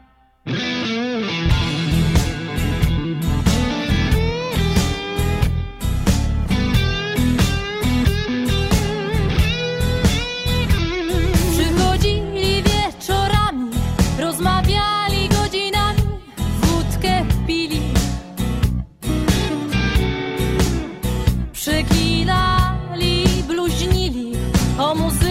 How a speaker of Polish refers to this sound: zaśpiewają piosenkę, bo to jest moim zdaniem piosenka idealna na ten czas, jako wyraz tęsknoty za tym życiem towarzyskim posłuchajmy